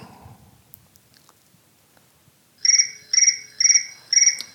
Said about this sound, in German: Oh, da schellt gerade das Telefon.